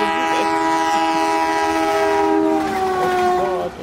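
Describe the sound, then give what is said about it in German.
A train horn sound effect is played, sounding in a long, steady chord with stacked tones over a rumbling rail background. It holds for several seconds before dropping off at the end. No one talks. “aber jetzt kommen wir zu der Partie, wo ich das neue, äh, den, den, neuen Sound definitiv spielen muss, weil der Hype Train fährt aber mal richtig mit Dampf mit dabei.”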